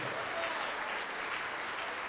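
A church audience applauds the name of Jesus steadily, a dense, continuous wash of many hands clapping at once, sustained and fairly loud throughout with no voices standing out.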